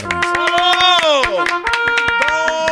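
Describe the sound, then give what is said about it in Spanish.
Quick, steady clapping rattles along for a few seconds, mixed with a loud sustained tone that bends up and down in pitch, like a voice or horn held under the claps. “Espéreme, déjele aplaudo. Es, un apláudeme, apláudeme,”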